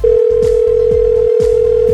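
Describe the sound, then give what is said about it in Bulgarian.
A steady telephone dial tone hums continuously at moderate loudness while a guest is being called in by phone, with a low rumbling line noise pulsing underneath it. No one speaks. “На телефона е”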